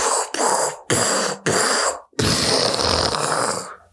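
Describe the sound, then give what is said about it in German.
A voice makes loud, rough, breathy bursts in quick succession, four short blasts and then one longer roaring one, mimicking an explosion with no words spoken. “Okay, ich glaube, das soll eine Explosion darstellen.”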